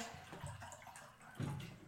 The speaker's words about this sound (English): I would make you drink, but I gotta pour you more wine.